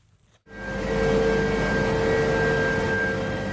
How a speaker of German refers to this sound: das Innere eines Kohlekraftwerks. Im Brennkessel lodert ein Höllenfeuer um die 1400 Grad Celsius heiß.